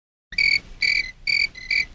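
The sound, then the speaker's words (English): Crickets chirp in four evenly spaced, shrill trilling bursts separated by brief pauses, clear, with no voices or other sounds around them. “It's it's it's the other kind of cricket, not that.”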